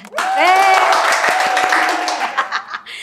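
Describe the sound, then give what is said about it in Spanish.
An audience breaks into loud, steady applause for about three seconds, with a few rising whoops and cheers over the dense clapping before it thins out. “Otra vez, aplauso.”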